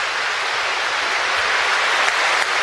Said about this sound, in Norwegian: And spontaneous applause breaks out in Westminster Abbey. I've never heard that before. Og applausen sprer seg som en bølge helt fram til den store kirken, og så inn gjennom dørene.